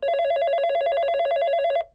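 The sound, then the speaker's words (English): A telephone bell rings in one loud, rapidly trilling burst lasting under two seconds, clear, then cuts off abruptly. No voices are heard. “And I get a phone call uh, from a friend Bill”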